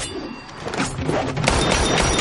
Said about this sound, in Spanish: Golpea una bala con las espadas.